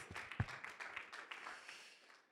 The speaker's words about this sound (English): Yeah, that's a, worth an applause for that. That is worth an applause.